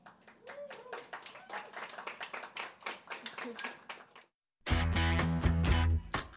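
A crowd applauds with dense, rapid clapping for about four seconds. After a brief silence, a loud burst of music with strong, steady bass follows.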